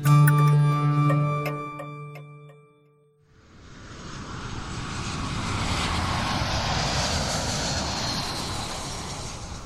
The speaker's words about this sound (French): Nous sommes le soir du mercredi 6 avril 1994. De retour d'un voyage en Tanzanie, l'avion du président rwandais Juvenal Habyarimana s'apprête à se poser sur l'aéroport de Kigali.